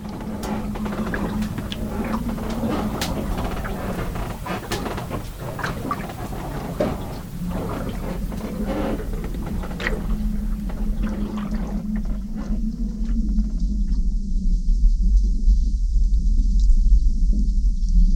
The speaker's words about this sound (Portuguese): Nessas condições, o barco geralmente à noite com um vento sul trazendo chuva e maré grande balança um bocado e faz sons desse tipo aqui.